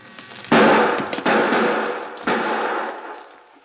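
Three loud gunshots ring out at uneven intervals, each a sharp crack followed by a long, echoing decay that fills the space before the next shot. No voices.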